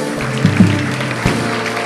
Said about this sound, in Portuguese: Vamos aplaudir nosso Deus, vamos lá.